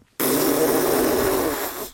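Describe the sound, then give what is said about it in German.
A whoopee cushion, squeezed as loudly as possible, gives one long, loud, buzzy fart noise after a brief pause, a sustained raspy blare of almost two seconds that tapers slightly at the end, with no talking. “hier ist ein Pupskissen, eins ist kaputt, ich hoffe, das ist nicht das hier.”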